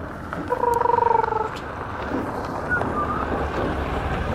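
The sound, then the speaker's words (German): A large truck rumbles past with a steady, heavy low roar, and a brief throbbing, rattling whine rises early on before fading back into the continuous engine noise. “Boah, das war so ein mega Laster gerade. Mit, keine Ahnung, Wagen und Gärtner. Mit sogar, ich glaube, man hat eh das Scheppern gehört.”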